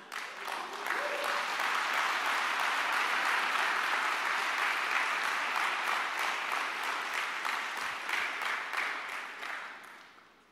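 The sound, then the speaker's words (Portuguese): A crowd claps steadily for about ten seconds, applauding the Lord, a dense, sustained burst of applause before tapering off at the end. “Pode aplaudir o Senhor.”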